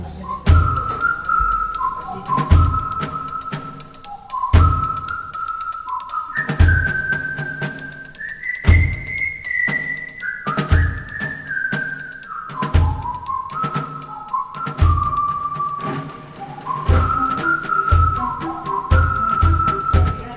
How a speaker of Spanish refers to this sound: Este sonido, como decíamos, que forma parte de la banda sonora de una película protagonizada por Josh Clooney, eh, con Matt Damon y Kate Blanchett,